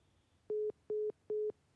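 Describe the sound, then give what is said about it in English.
A phone busy signal from a phone glitching in the sun sounds three short, identical beeps at a steady mid pitch, evenly spaced with brief silences between them, clear and alone against a quiet background. “They heard that everybody yeah, heard the doo doo. yeah, the technical thing. My phone apparently uh, don't like the sun.”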